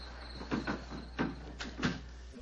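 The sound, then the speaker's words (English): Wooden window shutters are swung shut and latched: a few quick wooden knocks and scraping thuds, quiet, with a steady low hum underneath and no talking. “Now to close the window shutters.”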